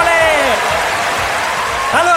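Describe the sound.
Steady, dense clapping from a group on a Radio Chuck radio show, an applause for Memoli. It fills the whole moment at an even level, with voices calling out over it at the start and again near the end.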